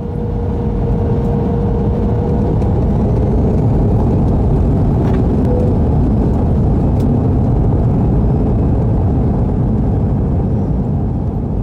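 A steady, loud low-frequency engine drone fills the whole recording, like the constant hum inside an airplane cabin, with a faint tonal whine running through it and no voices.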